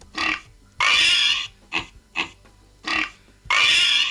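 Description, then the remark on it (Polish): A pig oinks and grunts in a rapid series of six calls, some long and squealing, others short, played as a recorded sound through the small tinny speaker of a doorbell, with no talking. “Mamy świnie.”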